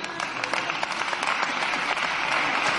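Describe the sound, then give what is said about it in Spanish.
Scattered, timid applause in parliament, even from the party's own benches, after a joke by parliamentarian Teodoro García Egea: a steady patter of many hands clapping at moderate volume with no strong swell, restrained and lukewarm rather than enthusiastic. “el aplauso es medio así tímido, ¿no? Hasta de su propia bancada.”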